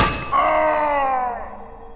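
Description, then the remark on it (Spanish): A shovel, gripped by the handle, strikes a man's head late at night with a single loud metallic clang, its bright ringing tones slowly fading over about a second and a half. No one speaks. “Fue entonces que con mucho coraje apreté el mango de la pala y en vez de cavar lo golpeé justo en la cabeza.”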